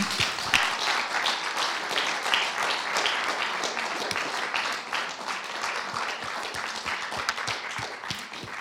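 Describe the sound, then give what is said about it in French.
An audience at an evening event applauds a guest who came to speak, many hands clapping steadily in a dense, continuous wash of sound that stays fairly loud throughout, with no voices standing out. “on vous applaudit.”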